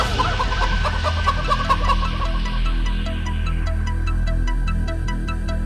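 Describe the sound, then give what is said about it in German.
Chicken clucks chopped into a loud, bass-heavy electronic dance beat, repeating in quick rhythmic bursts over a steady pounding pulse, with no talking. “….”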